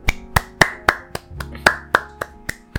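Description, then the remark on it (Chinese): Applause in a steady rhythm: about eleven crisp, evenly spaced hand claps, each a sharp individual slap rather than a dense crowd wash, with no voices. “来，给你个掌声！”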